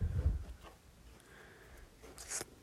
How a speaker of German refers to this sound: Der tippt.